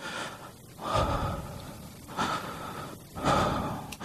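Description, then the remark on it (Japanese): A voice imitates the heavy, slow breathing of an unseen presence sensed while writing: three loud, breathy inhale-exhale cycles about a second apart, with no words spoken. “あの僕の場合、執筆の時によく何かヘイトの気配がある時には、まあまあ見えないんですけどね、あ、誰かおるなと思ったりする息遣いが聞こえることなんて、あの、まあまあありますよ。”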